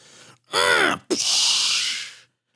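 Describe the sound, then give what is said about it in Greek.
An automatic air freshener dispenser gives a brief whirring tone, then a single loud, sustained hissing spray lasting about a second before cutting off, with no talking. “Στο διάλογο έχω μια μαλακή εδώ που φυσάει και κάνει Αυτέ αυτές οι παπαριέ οι οποίε βγάζουν άρωμα. Δεν ξέρω πώς δουλεύουν, αλλά για κάποιο λόγο δεν τι έχουμε κάνει να είναι σχετικά θόρυβες.”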